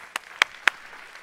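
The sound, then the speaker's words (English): Brief audience clapping: three sharp, crisp claps at a steady, slightly uneven pace over a faint background hiss, with no voices. “Y'all get ready to clap again”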